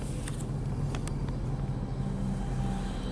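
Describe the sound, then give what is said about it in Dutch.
A train arriving, due to depart at four minutes to nine, rolls past with a steady, heavy low rumble that holds at an even loudness throughout, with a few faint clicks and rattles on top and no voices. “De trein komt eraan is 5 voor 9, 4 voor 9 geloof ik.”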